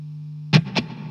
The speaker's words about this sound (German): Weiß noch jeder, wie die neue Gitarre klingt? Ja, bitteschön.